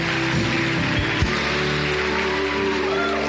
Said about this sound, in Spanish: Dale un aplauso al Señor.